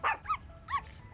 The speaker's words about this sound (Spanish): ¡Un cachorro!